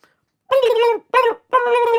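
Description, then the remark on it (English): A person imitates a group of turkeys stopped in the middle of a road, gobbling with three loud, warbling, throaty bursts, the first and last longer and the middle one short, with no other sound between them. “a gaggle of turkeys fucking popped out in front of me”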